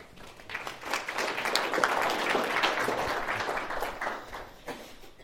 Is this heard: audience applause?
yes